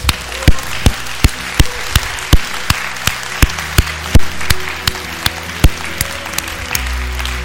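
An audience applauds, with sharp, evenly spaced claps standing out over a steady wash of clapping. It stays fairly loud for several seconds, with no one speaking.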